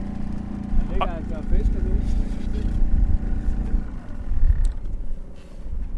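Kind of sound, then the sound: vehicle, boat outboard motor running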